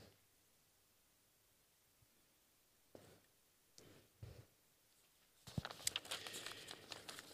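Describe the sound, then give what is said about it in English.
Paper rustles and crinkles as someone searches for a piece of paper, starting with a few soft, scattered handling noises after a quiet stretch, then turning into a dense, continuous shuffling for the last couple of seconds. No one speaks. “I can find me piece of paper with his quote.”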